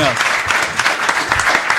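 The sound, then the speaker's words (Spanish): An audience breaks into applause, a dense, steady patter of many hands clapping at once with no pauses, filling the short moment at a fairly loud level. “Por favor, un aplauso.”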